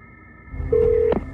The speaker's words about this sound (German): greift umgehend zum Telefon und erkundigt sich auf dem Revier nach dem Ausgang der Geschichte.